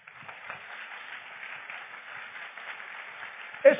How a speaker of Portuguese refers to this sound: Deu para entender? Então aplauda o Senhor. Obrigado.